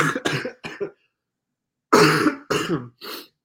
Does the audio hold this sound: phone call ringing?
no